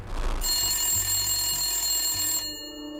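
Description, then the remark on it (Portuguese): A telephone rings in one sustained, bright electronic burst lasting about two seconds, fairly loud, after a brief muffled rustle at the start; no one speaks. “Foi por uma ligação telefônica o último contato com a família.”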